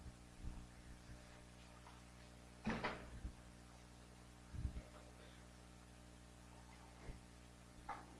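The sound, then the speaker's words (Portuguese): A lectern being removed and an object set down on a chair: a few scattered wooden knocks and clunks, one louder thump near the middle, over a low steady hum. No one speaks. “Então, então faz o seguinte, vamos tirar isso aqui, você tira o púlpito, eu coloco na cadeira aqui.”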